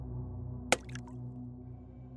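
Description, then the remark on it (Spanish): A single drop of liquid splatters with a sharp, wet smack onto a man's shoulder, distinct over a low steady background hum that carries on quietly afterward. “En su camisa se apreciaba una salpicadora, y antes de que dijera algo, otra gota se estampó contra su hombro.”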